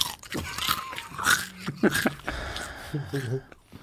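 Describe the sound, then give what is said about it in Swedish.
Close, crunchy chewing with a run of sharp, irregular bites and crackles right up against the microphone, and a voice murmuring underneath. “Du tuggar inte nära micken. Du tar bort micken när du tuggar.”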